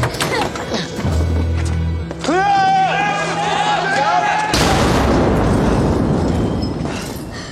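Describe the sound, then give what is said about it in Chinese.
A man shouts over a low rumble, then a grenade, taken from a car and thrown onto the street, bursts out in a loud explosion, and a harsh, noisy roar of blast and debris fills the remaining few seconds. “男主眼疾手快，捡起车上的手榴弹扔到了街上。”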